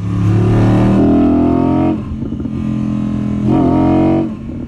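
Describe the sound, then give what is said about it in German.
A loud Spider sports car engine revs hard twice, its harmonic whine climbing and holding before dropping back to a rumbling idle between bursts. No one speaks. “Wichtig ist halt noch mal zu sagen, also auch das, der Wagen ist nicht nur laut und emotional, der ist auch wirklich noch extrem schnell, auch heute noch.”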